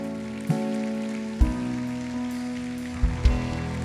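A crowd claps steadily in a dense, hissing patter, with sustained keyboard-like tones droning underneath and a few soft thumps scattered through.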